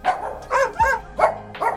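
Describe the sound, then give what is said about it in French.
A dog barks about five times in quick, slightly uneven succession, fairly loud, with short yelping tones and no voices; dogs rode on the platform of early tramways in Rennes. “Pour profiter du voyage, les chiens doivent quant à eux payer demi-tarif et rester sagement sur la plateforme.”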